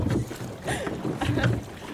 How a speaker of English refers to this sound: Well, on the bow side of the boat, we're just rowing out past the anchor at Appledore, which is hard to miss because it's huge. And then over there, on stroke side, is Instow, where it's always sunny.